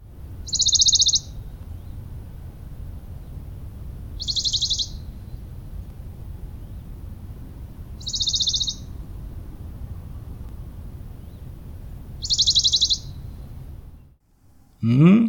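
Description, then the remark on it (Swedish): A Western Bonelli's warbler sings four short, dry, high-pitched trills, each under a second, spaced a few seconds apart over a steady low outdoor rumble, with no voices present. “jag var bergsångare.”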